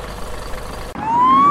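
vehicle, fire truck siren

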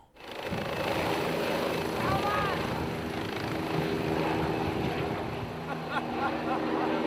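vehicle, helicopter taking off

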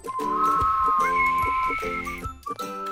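sound effect, whistling

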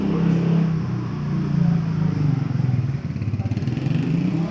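vehicle, motorcycle passing by outside

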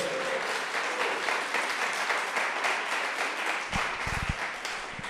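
crowd, applause

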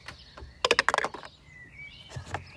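household object, dice being rolled

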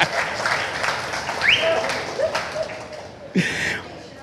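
crowd, audience applauding

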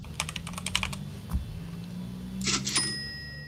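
household object, computer keyboard typing

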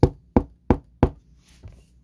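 impact, knocking on a door

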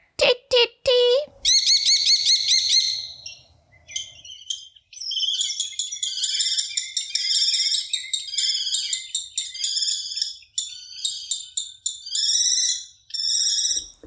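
bird, common kestrel call

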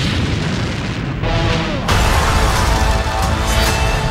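sound effect, explosion boom sound effect

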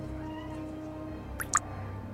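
animal, cat meowing

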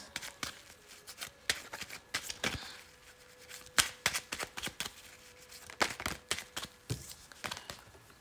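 household object, shuffling tarot cards

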